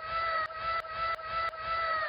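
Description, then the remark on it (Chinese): A canned "wow" sound effect that sounds like a child or a girl, fired off again and again in rapid succession, a bright, high, voice-like tone looping about five times with short clicks between repeats. “起来像小孩又像女孩子的“哇哦”的声音。”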